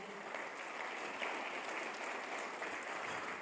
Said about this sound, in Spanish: Amén. Dale un fuerte aplauso a Dios ahí.